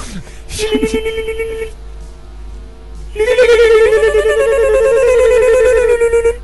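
A phone rings with an electronic ringtone melody: a short burst, a pause, then a longer unbroken stretch of bright, buzzy, loud tones.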